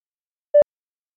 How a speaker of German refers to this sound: So, Manuel, es hat tatsächlich geklingelt.